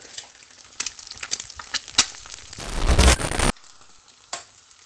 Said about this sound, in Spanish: El sonido de los huevos fritos. Es un poco como, como una hoguera. Pero más... Bueno, es el sonido de un huevo frito.